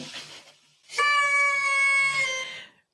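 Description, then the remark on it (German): A toy horn blares one long, steady, buzzy note for about a second and a half, loud and rich in overtones, then cuts off. A brief soft rustle comes before it. “So, ich, ich brauche die Tröte nochmal”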